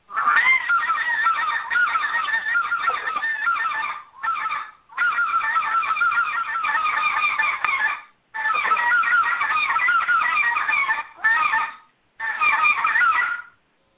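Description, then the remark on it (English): A goose call blown old-school style in rapid, rhythmic honking runs, loud, mimicking geese, with a few brief pauses between bursts and no talking. “I said, uh, um, and you can do the old school sound in it too.”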